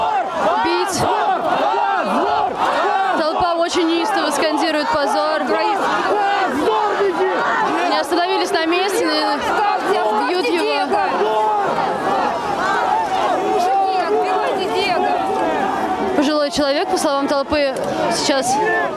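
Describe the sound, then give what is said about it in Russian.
A large protest crowd shouts and yells continuously during an arrest as a crush begins, many overlapping voices rising in agitated cries, loud and dense throughout with no pauses. “толпа неистовствует, э, все летят э, к, к нему э, снимать. Начинается давка. Люди в толпе кричат «дави на них».”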